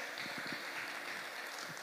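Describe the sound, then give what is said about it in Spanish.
A crowd applauds steadily, a dense crackle of many hands clapping at once, holding an even level throughout without pause or any clear voices. “Un aplauso, por favor.”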